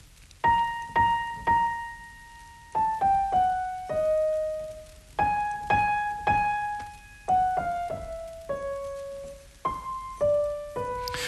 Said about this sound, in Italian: Su questa melodia il flauto farà una contromelodia che suona così.